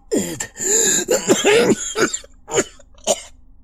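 A man coughs up blood: a run of weak, wet-sounding coughs and throat-clearing, starting in a ragged cluster and then trailing off into a few separate short hacks, with no talking.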